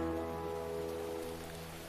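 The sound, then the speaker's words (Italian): Steady rain patters and hisses evenly throughout, blended with a sustained low musical chord that fades slightly toward the end; no one speaks. “E piove.”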